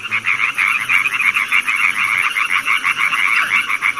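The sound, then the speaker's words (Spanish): A dense chorus of frogs and toads croaks in rapid, overlapping pulses, loud and continuous, with a thin steady cricket trill above and no voices. Recorded in a wetland and forest ten minutes from the centre of Buenos Aires. “pájaros, ranas, sapos y grillos, esos son los intérpretes que hemos podido registrar en una selva increíble que está a 10 minutos del centro de Buenos Aires.”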